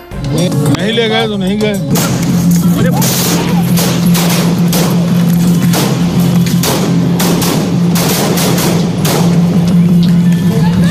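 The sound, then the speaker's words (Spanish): Rapid gunfire rings out in a dense, continuous burst of sharp cracks, loud, with shouting voices mixed into the chaos, during an attack as two brothers under heavy police guard leave a police vehicle for a medical centre and answer journalists' questions. “el, el sonido de los disparos que se escuchan clarísimamente.”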